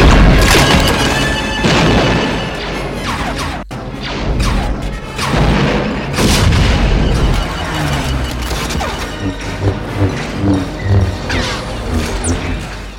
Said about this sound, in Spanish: Y es que en todas las películas de la Guerra de las Galaxias están repletas de espectaculares batallas con explosiones, rayos láseres de un lado para otro, vamos, montando un follón de muy señor mío.